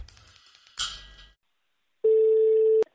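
A telephone ringback tone on an outgoing call to a holiday home in France: one steady, buzzy burst lasting under a second, ending in a sharp click, after a brief stretch of noisy rustling and a short pause.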